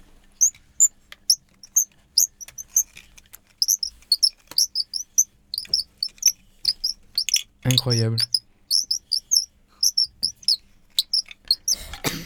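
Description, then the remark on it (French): A handmade instrument made from a piece of wood gives quick, high-pitched bird-like chirps in a steady, busy stream, clear, with a person briefly exclaiming partway through. “C'est le son du oiseau.”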